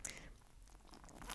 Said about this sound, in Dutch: Oké, gaan we proeven? Ja, ik heb uh, geen geduld meer. iets slurpen.